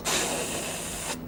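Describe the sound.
A voice imitates a bus's rear door closing with a single steady, breathy hiss lasting about a second. It starts and cuts off abruptly, alone with no talk.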